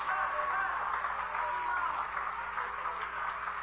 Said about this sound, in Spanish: Si usted cree que está oyendo palabra de Jehová y es palabra buena, den un aplauso grande a Jesucristo, que es el que ha hecho un milagro en mí, me tiene parado en este altar predicándola.